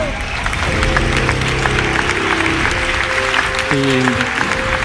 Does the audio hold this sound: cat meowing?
no